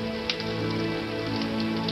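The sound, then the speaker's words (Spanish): Steady rain falls in a continuous, even hiss with a few brief spatters, while low sustained tones hum quietly underneath. No one speaks. “La niña esperó otro minuto y repitió, Mamá, corramos a través de la lluvia.”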